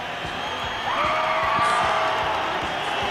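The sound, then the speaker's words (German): A concert crowd at a 1965 open-air concert at the Waldbühne in West Berlin cheers in a steady, dense roar, with a long shrill whistle or whoop rising above it midway and scattered claps underneath, in a live recording from the radio broadcast. “Das ist ein Live-Mitschnitt aus der Radioübertragung.”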